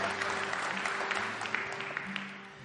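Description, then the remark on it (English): A crowd applauds steadily, a dense wash of many hands clapping at an even level for a few seconds, tapering slightly toward the end, with no voices standing out. “well, that's pretty impressive clap, wouldn't you say”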